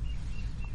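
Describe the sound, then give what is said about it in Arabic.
A small bird chirps a few quick, thin notes in a garden, fairly faint over a steady low rumble of background noise. “والله سامع العصفور انا والله متفاجئ الحقيقه حديقه ما شاء الله ما شاء الله”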